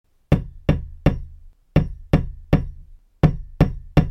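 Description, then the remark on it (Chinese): Three sets of three heavy, dull knocks on a floor, each a sharp thud with a low, booming body, evenly spaced in a steady rhythm with brief pauses between groups, made by a mother preparing feed. No voices. “是有人在敲门吗？ 哦，那个声音好像不是从门外传来的耶。诶，是有人在敲地板吗？”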